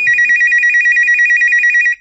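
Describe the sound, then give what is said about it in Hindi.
A telephone rings with a steady, rapidly warbling electronic trill that holds for about two seconds before cutting off, as a call is made from an office late at night to reception to order tea. It is loud, with no voices. “खाना खाकर उसने रिसेप्शन पे चाय मंगवाने के लिए फोन किया”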